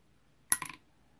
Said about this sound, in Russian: Подойти к реке, кинуть пятак,